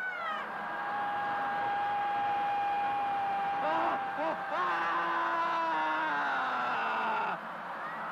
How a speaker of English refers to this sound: The next phase, the screaming phase of dynamic meditation, feels like when you finally had an opportunity to throw a tantrum when you were a little kid.